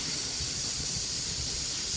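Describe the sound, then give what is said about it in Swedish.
A steady hiss of food boiling in a pot on a stove at five o'clock, cooked after setting up in a car, continuous and even throughout with a soft low rumble underneath and no voices. “Och då brukar det bli en liten vilopause här när maten håller på och kokar.”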